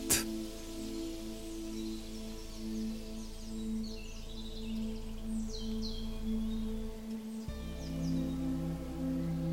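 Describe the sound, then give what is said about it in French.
Many birds chirp and twitter in scattered bursts high in the sky over a forest of shrubs and old trees, above a steady, low droning hum, the calls fairly faint, with no one speaking. “Dans le ciel, vous ne les voyez pas, mais vous entendez de nombreux oiseaux.”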